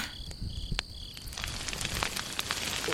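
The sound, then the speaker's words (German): A steady crackling sizzle of a sausage frying on a barbecue grill, with sharp pops scattered throughout and a faint high-pitched chirping in the background early on. “Aber jetzt hau ich erstmal ein Würstchen auf den Grill.”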